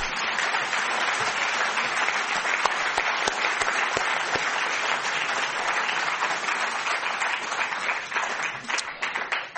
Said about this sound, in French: Nous terminons euh, cette euh, première partie de soirée. Merci d'applaudir de nouveau.